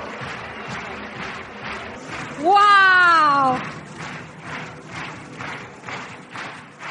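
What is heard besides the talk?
audience applause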